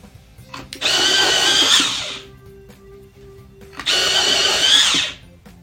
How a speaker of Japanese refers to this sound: 急に鉛筆削り始めておそうそう今日の話題鉛筆削りなのよ何それ最近 USB 電源使って使えるタイプがあってねコードが邪魔にならないというかデスクの近くで使える結構便利ですよね USB 電源って